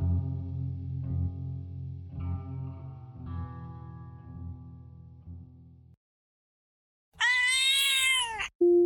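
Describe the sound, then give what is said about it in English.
A single loud, drawn-out black cat meow, heavily processed with a warbling, distorted effect, rings out near the end after several seconds of eerie, layered droning tones. “A Black Cat brings us a story from an individual that goes by the name of Constipated Hawk.”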